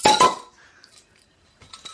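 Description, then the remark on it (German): Two quick bright clinks of champagne glasses in a toast, a sharp chime with a brief shimmering tail, followed by quieter rustling and faint glassy movement. “Prost und herzlich willkommen zu Champagner und Hühner Frikassee, die vierte.”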